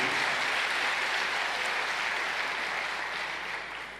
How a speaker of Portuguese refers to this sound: Glória a Deus. Glória a Deus. Um aplauso para Jesus Cristo. Aleluia.